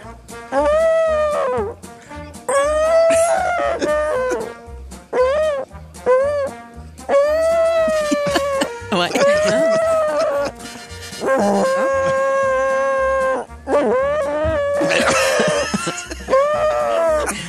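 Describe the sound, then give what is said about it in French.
A person's voice mimics whale calls with a loud run of long, wavering moans that slide up and down in pitch, back to back with short breaths between and no words. “C'est deux baleines dans un bar. L'une dit à l'autre”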